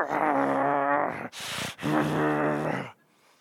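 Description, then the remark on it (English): A voice imitates a demon-possessed church bass player's deep, guttural growl in two long, raspy bursts separated by a brief breathy gasp, loud, trailing off at the end. “I remember one time he was in a church preaching and the bass player was growling at him.”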